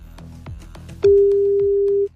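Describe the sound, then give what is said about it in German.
An outgoing phone call rings: one loud, steady, low-pitched ringback tone holds for about a second, after some soft rhythmic thumping and muffled background noise. “Es klingelt.”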